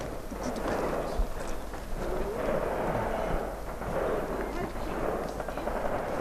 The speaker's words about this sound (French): Le cours de la discussion est interrompu par des bruits de fusil. Des exercices militaires, soupire …. Une nuisance sonore qui nous rappelle que l'on se trouve tout près de la frontière la plus militarisée au monde.